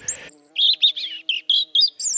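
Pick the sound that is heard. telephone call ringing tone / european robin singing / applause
european robin singing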